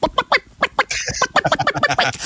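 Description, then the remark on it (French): A voice imitates a hen clucking, fairly loud: a quick run of short, choppy clucks, a drawn-out squawk partway through, then more rapid clucking. “Moi, j'ai pas le goût de sortir de votre bureau pour faire la poule”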